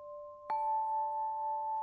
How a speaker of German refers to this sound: Eine sanfte Brise streicht durch den Wald und von weit entfernt kannst du ein Klingeln hören. Ganz zart.